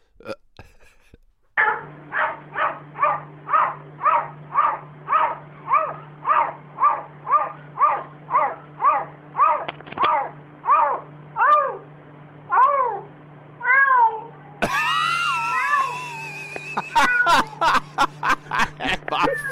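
A cat sitting at a window looking out makes a long run of short, bark-like yaps, about twenty in a steady rhythm, fairly loud, then, on noticing it is being filmed, breaks into drawn-out, wavering meows.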